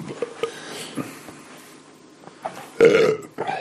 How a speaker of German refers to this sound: Ich muss irgendwo mal hier eine Statistik aufstellen, wie weit wir kommen, bevor du das erste Mal rülpst.